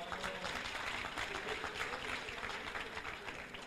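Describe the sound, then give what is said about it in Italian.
A crowd applauding steadily, a dense wash of many overlapping claps that stays loud and even throughout, with no single voice standing out. “Oh, l'applauso deve essere preso tu, eh, mica io.”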